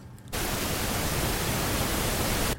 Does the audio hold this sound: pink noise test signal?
yes